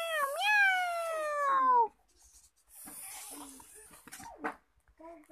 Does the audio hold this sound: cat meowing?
yes